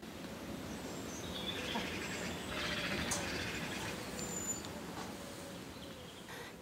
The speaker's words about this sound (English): I'll leave you just with that evening bird song.